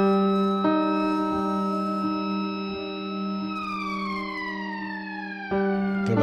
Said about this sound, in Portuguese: Uh, é a fábrica toda a gente conhecia os apitos. Os apitos eram diferentes. Eram diferentes.